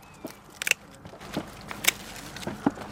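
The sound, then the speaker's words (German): Scissors snip grapes from the vine in a vineyard in Mainz-Ebersheim, Germany, as a winemaker cuts bunches and removes bad, rotten grapes: a handful of crisp, sharp clicks at an irregular pace, some in quick pairs, over a faint rustling background with no voices. “legt selbst Hand an und schnibbelt die Trauben mit einer Schere von der Rebe.”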